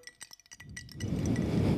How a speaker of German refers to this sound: Leitungswasser mit äh, Eiswürfeln.